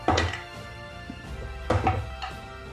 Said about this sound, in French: De morale, comme dans Warhammer? J'ai fait un jet de morale, ils ont eu 5 sur le dé.